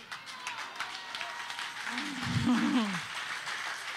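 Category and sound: crowd, audience applause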